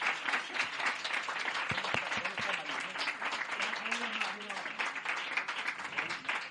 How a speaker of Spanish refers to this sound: Otro aplauso para los ganadores, por favor. Se lo tienen más que merecido.